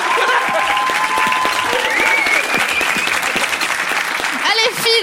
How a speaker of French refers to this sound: Faites-nous une sortie en trombe sous un tonnerre d'applaudissements.